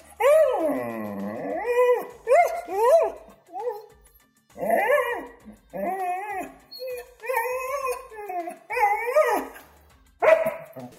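A pet dog named Titi barks in a string of drawn-out, yowling bursts, some rising and falling in pitch, with short pauses between them and no one talking.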